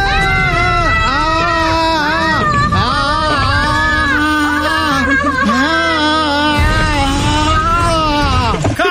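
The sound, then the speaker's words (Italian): A person lets out a long, exaggerated, performed scream of terror, loud, its pitch wavering and wailing almost continuously for about nine seconds with only brief breaks. “È il mio urlo di terrore.”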